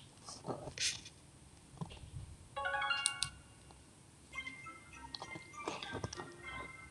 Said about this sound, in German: Ich hoffe, man hört den Brawl Ton angenehm. Ja, ich starte gerade die App.